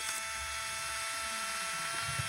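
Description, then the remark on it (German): An instant camera's motor whirs as it pushes out a credit-card-sized print, still white: a steady, buzzing mechanical whine with a high electric hum, holding for about two seconds with no one talking. “Jetzt macht Lärm. Genau, und schon kommt ein Bild heraus.”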